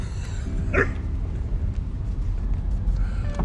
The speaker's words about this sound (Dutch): Kijk, dat is, die luistert goed hè die hond van, eh, die ik ooit een keer gefotografeerd heb, de hond